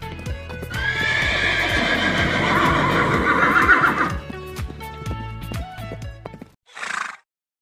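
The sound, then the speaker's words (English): A horse of a country singer, at his ranch, gives a long, loud whinny over a steady rhythm of hooves clip-clopping, then the neigh fades and the hoofbeats continue before a short breathy snort at the end. “Today on Ranch Talk, we help … decode a message from his horse.”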